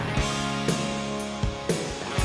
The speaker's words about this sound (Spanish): Por la derecha sigue la guitarra con distorsión, pero por la izquierda y por el centro ha entrado una un poco más limpia. Ahí la han subido. Muy atentos al canal derecho. ¿Cómo han subido la guitarra distorsionada en la mezcla?